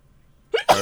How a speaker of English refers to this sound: that was me sneezing going into a burp because my body is a fucking mess